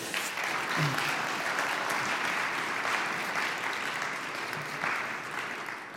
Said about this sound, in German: also erstmal einen herzlichen Applaus.